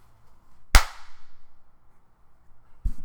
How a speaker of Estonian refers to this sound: teeme, vaata, ja teeme plakse. tee üks korralik siis.